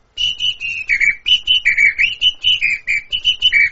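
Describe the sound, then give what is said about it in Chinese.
A bird whistle, a traditional instrument of the Amazon region, trills a rapid run of bright, high warbling notes that dip and rise in pitch, imitating birdsong in short repeated phrases with brief pauses, loud and clear with no talking. “这个这是鸟哨嘛？”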